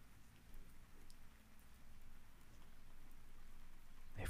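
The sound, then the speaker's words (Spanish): Steady, soft rain falls in the background, a continuous gentle patter and hiss with no voices, ending in a brief louder rustle. “Cómo es el aire de este paisaje y el clima del sonido de lluvia que logras percibir en el fondo.”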